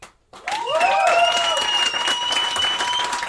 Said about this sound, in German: Okay, also euer Applaus für die Frage, wo ist Vincent?